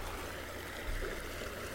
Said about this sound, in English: These are the sounds of small creeks and rivers, no voice, no talking.